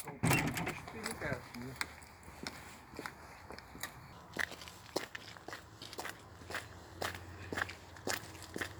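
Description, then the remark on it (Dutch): Steady footsteps walk outdoors at an even pace through Trompenburg Gardens and Arboretum toward the food forest Voedselbos de Overtuin. Each step is a crisp tap repeating about twice a second, with faint voices briefly at the start. “Dwars door Trompenburg lopen wij naar het voedselbos.”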